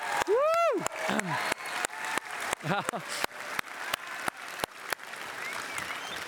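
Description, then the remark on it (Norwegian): An audience at UL applauds with a steady, dense patter of clapping lasting several seconds, while a voice briefly calls out with rising and falling tones near the start and middle. “Så kan ikke vi gi en, egentlig en klapp til alle, vi gir en liten klapp til alle over prioriteringen med å være på UL.”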